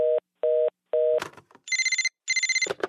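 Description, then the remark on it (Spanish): A telephone rings: three short steady beeps, a brief clatter, then two loud trilling bursts of a bright bell-like ring. No one speaks. “Bueno, eh, ¿tú llamaste hace un segundo?”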